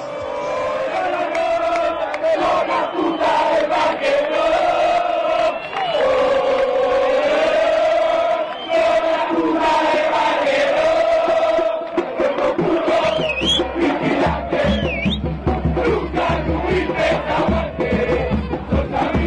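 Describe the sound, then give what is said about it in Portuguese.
Football supporters from Maroñas chant a message to the Parque Rodó supporters of Defensor, a sustained, loud melody sung together in a massed crowd. Partway through, a steady low beat joins in and a few high whistles cut above the singing. “Então agora a gente vai ouvir esse recado né, do, do pessoal de Marônias para o pessoal do Parque Rodó, no caso o defensor.”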